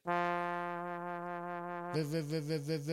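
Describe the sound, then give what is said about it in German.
A buzzy electronic trumpet tone holds a single steady note, then after about two seconds a pulsing tremolo kicks in, wobbling the volume rhythmically until the end. “Also gerade bei den Saxophonen oder bei den, ähm, bei den äh, Trompeten ist es immer so, wenn man den länger gedrückt hält.”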